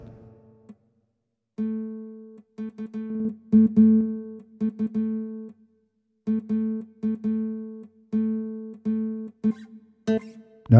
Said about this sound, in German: Aber wir machen mal ein bisschen Gitarre spielen. Genau. da haben wir jetzt auch natürlich die verschiedenen Spielweisen.